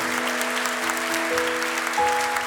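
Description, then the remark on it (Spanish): An audience applauds for the Lord in a steady, dense wash of clapping that lasts throughout, with sustained keyboard-like chords humming underneath and shifting pitch a couple of times. “Y de verdad quiero que le demos un aplauso al Señor por ellos, porque algo va a hacer Dios con ustedes.”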